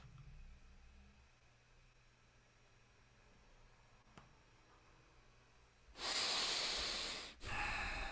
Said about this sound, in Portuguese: Eu consigo configurar o áudio aqui para vocês ouvirem melhor a minha respiração. Agora sim.